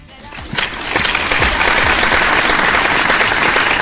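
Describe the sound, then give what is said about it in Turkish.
Audience applause in support of the Turkish Armed Forces, whose operation began that day, swells within the first second into steady, dense clapping from many hands, loud and sustained to the end, with a few faint voices mixed in. “Ben bir alkışla başlamak istiyorum ki moral olsun, güç olsun kendilerine, Türk Silahlı Kuvvetlerimize, öğrenin kuzeyine bir operasyon başladı bugün.”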